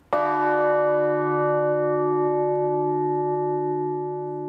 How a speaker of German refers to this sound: man hört einfach ein, ein wunderschöner Nachhall dieser Glocke.